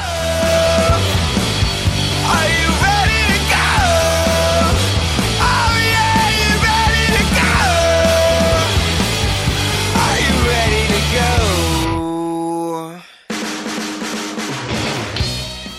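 A loud rock song plays throughout, full-band instruments under a strained, soaring sung vocal, briefly thinning out near the end before kicking back in at full volume.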